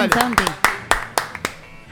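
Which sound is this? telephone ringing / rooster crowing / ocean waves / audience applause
audience applause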